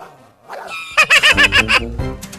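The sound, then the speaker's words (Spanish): A small dog yaps sharply about five times in quick succession, high-pitched, with a brief pause before a couple more faint yelps at the end. “yo tengo un perrito chihuahua que es bien bravo con todos.”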